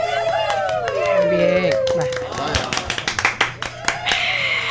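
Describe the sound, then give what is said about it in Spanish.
A crowd's overlapping voices and shouts give way to a burst of applause, loose irregular claps from several people rising over lingering chatter. “Eh, ahí, es donde, ahí, es donde, ahí es donde aplauden, ¿eh?”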